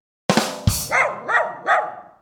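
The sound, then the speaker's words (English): A dog barks five times in quick succession, loud: two sharp, abrupt barks followed by three higher, more tonal yelping barks, with no one talking. “Woof.”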